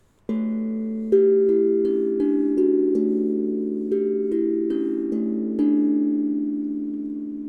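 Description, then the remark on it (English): A steel tongue drum, also called a panda drum, is played, around eight mellow metallic notes struck at an unhurried pace, each ringing out and overlapping into a sustained shimmering tone, with no talking. “But have you guys heard of a panda drum?”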